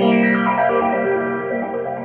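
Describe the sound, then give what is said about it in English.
A phase shifter in step mode chops a sustained, processed tone into shifting, random-sounding pitch steps, loud and continuous with a buzzy, effected character and no talking. “Uh, the step on on mine on the phase shifter, it's different altogether.”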